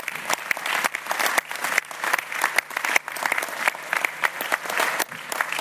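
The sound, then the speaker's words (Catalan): A crowd applauds the media who covered the elections, many hands clapping in a dense, even patter that holds at a constant loudness throughout, with no voices standing out. “Per tant, us mereixeu també un aplaudiment tots els mitjans de comunicació.”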